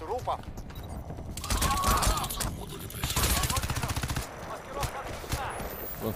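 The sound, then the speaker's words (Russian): Rapid bursts of video game gunfire crackle in repeated volleys, fairly loud and continuous, with a voice talking faintly underneath the shooting. “Вот откуда он стреляет, я не слышу.”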